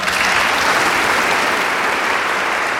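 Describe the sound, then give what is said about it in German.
Steady, loud applause from an audience after a Friday book reading of Zwischenwelten with Simon Urban and Juli C. fills the whole moment, a dense wash of many hands clapping at once with no pauses and no voices standing out. “Dafür gab es großen Applaus am Freitag.”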